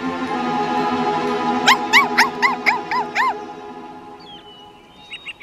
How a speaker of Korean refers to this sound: 아유 귀여운 강아지네. 아이고 아이고 그래. 아이고 귀엽다. 음 무슨 일이 있나? 어, 왜 저쪽을 계속 보면서 짖는 거야?